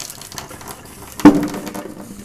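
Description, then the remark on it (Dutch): A single sharp metallic pop as a steel sink basin dents outward from the heat of the hot water tap, with a brief ringing tail, set against a steady hiss of running water. “dat is dan de uh, wasbak die uitdeukt door de hitte.”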